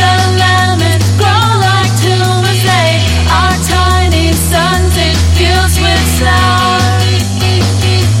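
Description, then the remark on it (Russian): An indie rock song from a 2005 album plays loud and full: a male voice sings over steady bass, guitars and crisp drum hits that keep a driving beat throughout. “И это песня …. Вот она звучит так.”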